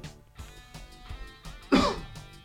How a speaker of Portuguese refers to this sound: Dá uma, uma leve pigarreada aqui, longe dos microfones.